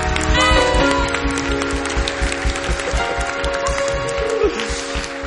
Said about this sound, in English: Clapping, Clap. No, you are shouting. You are not clapping. Clap. I still can't hear the clap. It should be louder than your graduation.